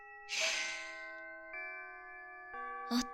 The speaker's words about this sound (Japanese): 文化祭終了のチャイムが鳴ったなもちろん私と君にとっては全然違うものに聞こえるけどねこのチャイムはこれから私と君がドロドロに溶け合いお互いを求め合う夜を迎える祝福の鐘